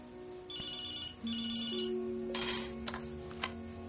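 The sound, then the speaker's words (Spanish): A telephone rings in two bursts of bright, trilling electronic tones while coffee is being prepared. Clattering and clinking noises follow, like cups or dishes being handled. “Ali está preparando café cuando le suena el teléfono.”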